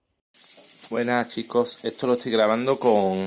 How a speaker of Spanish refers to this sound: Perdona el ruido de fondo, es que estoy llenando la bañera para mí, ¿vale?